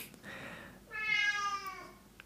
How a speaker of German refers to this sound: das ist übrigens Janni, das ist äh, unsere Katze. Und äh, er ist ein Kater und er miaut gerade ein bisschen rum.